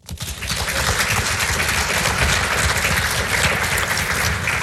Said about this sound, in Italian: Eccoci qua gli applausi del pubblico del Maggio Musicale Fiorentino lo scorso 5 marzo per la lezione di Giovanni Bieti su Rex Progress di Igor Stravinsky